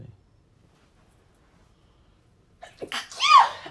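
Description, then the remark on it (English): A single loud sneeze bursts out after nearly three seconds of near silence, with a sharp inhaled buildup leading into the explosive release. “And so um you gotta sneeze, baby.”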